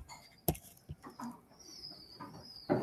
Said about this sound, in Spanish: quién sabe qué se están peleando por comida. Wow, bueno, yo creo que las palomas traen bendiciones también.